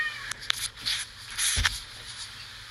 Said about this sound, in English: there's Adam. I knew I couldn't get through a whole podcast without him bothering me and wanting my attention. Spoiled cat.